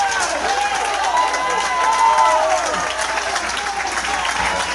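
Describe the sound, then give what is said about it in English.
A crowd of Lisbon Lion baseball fans, all on their feet with two outs, cheers and applauds nonstop: a dense, loud wash of clapping with excited voices shouting and whooping over it, holding steady from start to finish. “And the Lisbon Lion fans are pretty excited as they're all on their feet.”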